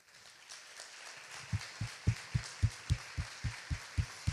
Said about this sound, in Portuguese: Gente, tem uma pessoa dormindo aqui nesse recinto, nós vamos dar uma salva de palmas a Jesus.